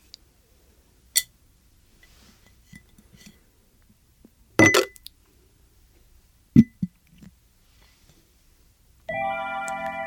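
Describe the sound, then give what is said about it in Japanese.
A coaster dropped into a glass jar to be stored: a few sharp, bright clinks spaced apart, one followed by small rattling bounces, before a steady tonal sound begins at the very end. “では今日もこのコースターをガラス瓶に入れて保存します。”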